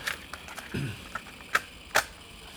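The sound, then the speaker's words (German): A cassette is pushed into a tape player: a few light plastic clicks and a soft rumble of handling, then two sharper mechanical clacks as it seats. Fairly quiet, with no voices. “Soll ich? Ja, bitte, leg ein.”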